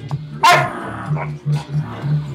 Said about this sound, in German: Das ist ja nur von dem Hund.